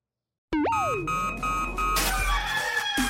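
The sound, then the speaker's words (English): A rooster crows loudly, one long strained call lasting a few seconds, with a burst of rough, noisy clatter partway through and no talking. “Damn rooster didn't crow.”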